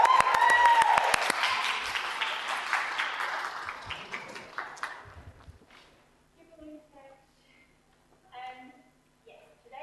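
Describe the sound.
A room full of people claps loudly for several seconds, the dense applause gradually thinning and dying away before a single voice begins speaking.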